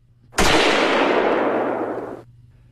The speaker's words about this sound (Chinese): 就在他们走出去大概四五分钟，陈自磊他就听到外面一声枪响。